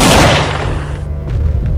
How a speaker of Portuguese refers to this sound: Quando ela pensou em ter uma reação, foi o primeiro tiro. Em seguida, mais um tiro.